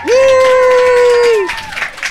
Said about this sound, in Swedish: Så ikväll så har vi två gäster med oss. Ska vi bara stampa eh, fötterna i golvet, klappa ja. händerna, så bara ger vi en applåd för dem.